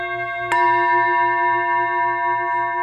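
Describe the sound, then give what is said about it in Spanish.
A Tibetan singing bowl is struck once with a wooden mallet that has suede-like material on its lower part, giving a clear, bright onset followed by a steady, shimmering ring of several layered tones that sustains without fading. “Lo que están escuchando solo es toque. Estoy tocando con una baqueta de madera.”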